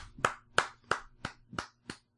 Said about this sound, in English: That was me clapping. That wasn't a sound effect. That would have been a fucking terrible sound effect.